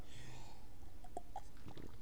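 A sip of water: soft mouth and swallowing sounds with a couple of brief, quiet gulping clicks, then faint rustling, all fairly low in level with no talking.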